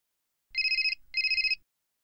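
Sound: mobile phone ringing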